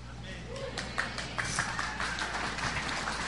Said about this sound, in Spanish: Nomás los esposos aplaudieron.